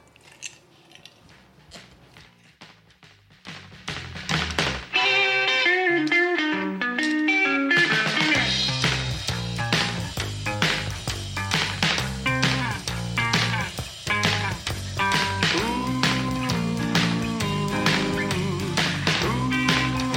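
A rockabilly song released in 1982 plays loudly and clearly: a sparse, quiet intro of plucked notes builds after a few seconds into a full band with a steady, swinging beat and upright bass, continuing throughout without talk.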